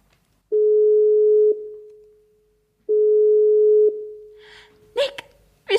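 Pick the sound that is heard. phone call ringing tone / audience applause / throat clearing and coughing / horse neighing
phone call ringing tone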